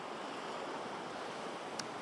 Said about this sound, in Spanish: Porque aquí, delante del mar, con este ruido, es muy relajador y me está, me está llegando un poco de, de sueño.